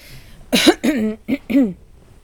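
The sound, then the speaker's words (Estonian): A fairly loud bout of throat clearing and coughing: four quick, rough bursts in an uneven rhythm, the middle ones a bit drawn out, then quiet. “äh, oli ka, issand, siin ei toju küsi-, köhida ka praegu niisugune aeg, on ju, vabandust”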